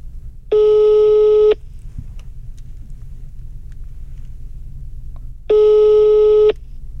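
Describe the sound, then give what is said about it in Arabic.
A phone ringback tone on speakerphone sounds twice, each steady electronic ring lasting about a second with a long pause between, over a low background rumble as the call goes unanswered. “ما راح ترد؟ لأنه محتاجينها ما راح ترد.”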